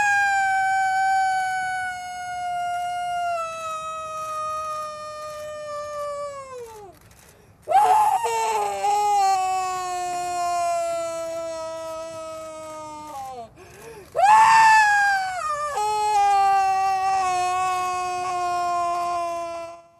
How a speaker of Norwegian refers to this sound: vi hørte jo det var et sårt og hjerteskjærende hyl som hun slynget utover Oslofjorden